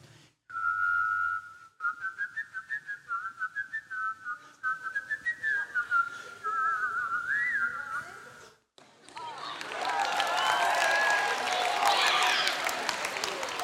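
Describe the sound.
One person whistles a two-part harmony, a wavering melody for about eight seconds with a second line faintly shadowing the main tune, then breaks off into loud, dense applause and cheering from a crowd.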